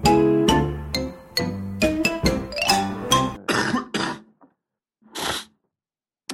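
A burst of several harsh coughs in quick succession from a person with an old autumn cold, followed by a couple of softer breathy sounds like sniffs, with no talking.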